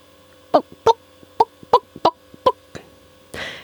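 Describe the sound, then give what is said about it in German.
A hen clucks about seven times in a quick, steady rhythm, fairly loud, followed by a brief rustling noise at the end; no one speaks. “Die Lego-Henne ist ein sehr praktischer Hühnervogel, der sich prima für die Intensivhaltung auf engstem Raum eignet.”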